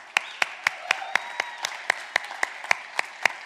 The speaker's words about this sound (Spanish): Eh, por lo menos lo que yo veo aquí en el círculo, de los padres del círculo y de los padres de la gente que viene al círculo, es que son buenos padres. En serio, un aplauso.